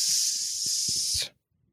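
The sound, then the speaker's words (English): A person imitates a snake with one long, loud, steady hiss lasting over a second, then cuts off abruptly into near silence, with faint low thumps underneath. “Thank you, Sir Snake.”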